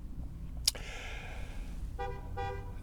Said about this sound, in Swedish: De tutar inte på mig i alla fall kan jag säga de tutar inte på mig kan jag säga